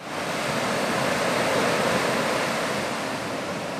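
A steady, loud wash of surf as ocean waves roll in and break on the shore, a broad continuous rushing roar with no voices.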